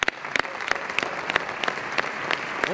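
Steady audience applause, a dense wash of many hands clapping with sharper individual claps popping out irregularly, sustained at an even, fairly loud level throughout.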